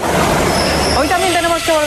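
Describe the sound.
A train rushes past at full speed with a loud, dense roaring rumble and a faint high whine, a TV effect of a train appearing in the Antena 3 Noticias studio. Then the noise drops away as a person starts talking over it.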